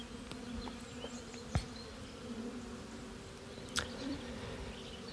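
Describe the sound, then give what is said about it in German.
A steady, continuous drone of many honeybees buzzing, a dense hum with a couple of brief sharper clicks or taps, and no one speaking; the bees belong to a migratory beekeeper who moves them around the landscape to nectar sources. “Ich achte ja aber nicht nur auf Nahrung, sondern unterstütze die Bienen auch bei Krankheiten und halte die Varroa im Blick.”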